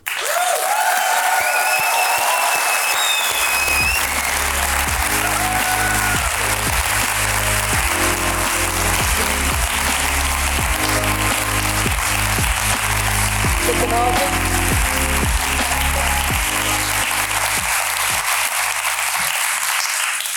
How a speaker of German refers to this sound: Und äh, ich würde sagen, das ist dank ihr und auch mit ihr und einen herzlichen Applaus für Lara Dickemann.